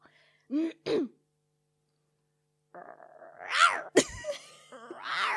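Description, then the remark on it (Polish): Someone imitates the roar of the lion cub Simba: two short raspy bursts, a pause of about two seconds, then a longer strained, yowling growl that rises and breaks off. “Uwaga, teraz będziemy prezentować e, ryk małego Simby”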